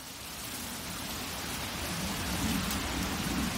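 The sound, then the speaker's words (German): Wind rushes through trees in a steady, dense hiss that swells slightly toward the end, continuous, with no voices or other distinct sounds. “Der Wind, der durch die Bäume streift.”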